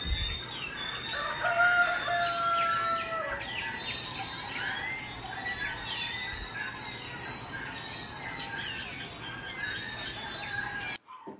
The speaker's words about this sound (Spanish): Y, se escuchaba, yo salí y yo decía, Dios mío, ¿qué es esto? Habían como, no te escuchabas bien, habían como, como 30 gallos, a todas las distancias había igual porque ahí casi no se escucha.